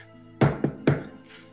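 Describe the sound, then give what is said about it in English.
Three solid, fairly loud knocks on a closed door bearing the plaque of Cornelius Regwin, lawmaster, in a quick uneven pattern with the first two close together, against an otherwise quiet background. “Knock.”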